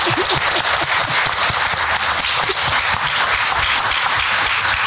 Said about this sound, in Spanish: Muchas gracias a, los tres. Les damos un aplauso con todo cariño. Gracias.